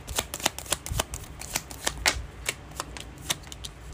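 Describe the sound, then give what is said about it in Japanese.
Tarot cards being shuffled and one or two drawn, a rapid series of sharp papery snaps and flutters in an irregular rhythm, with no one speaking; the Seven of Pentacles reversed and the Two of Cups upright are drawn. “はい、それではですね、1枚というか2枚というか引いていっちゃいましょうか。”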